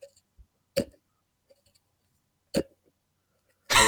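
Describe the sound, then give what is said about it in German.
A screw-cap nacho cheese dip jar being opened: two sharp, isolated pops about two seconds apart, then a louder scraping burst at the very end as the lid turns free. “Das ist ein Käsedip, ein Nacho-Käsedip so, äh, mit Schraubverschluss.”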